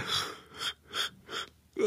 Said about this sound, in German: Ach, ich gähn. Ich werde matt.